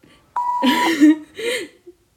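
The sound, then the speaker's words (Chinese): A single steady, high-pitched censor bleep added in editing to cover swear words, lasting about half a second, starting alone and then overlapping a voice that keeps talking briefly afterward. “你这个也会被我给剪掉的，你这些脏话都是不允许出现的，我会在后面加上哔哔两声，帮你做音效，表达你的情绪。”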